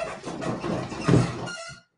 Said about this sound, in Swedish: Jag måste smörja min stol. Det gnekar så in i helvete.